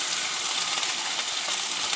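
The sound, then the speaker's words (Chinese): A thick salmon fillet, cooked without added oil, sizzles steadily in a pan as its side is seared, a dense, bright crackle of hissing and tiny pops at an even level throughout, with no voices. “很金黄，好，那因为我这个菲力稍微比较厚，我侧边呢也稍微煎一下它。”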